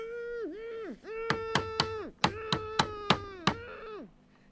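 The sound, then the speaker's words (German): Someone knocks in a run of about seven sharp, evenly spaced, loud knocks over a sustained wavering voiced tone that rises and falls like drawn-out humming. “Ja, ja, da hat doch jemand geklopft.”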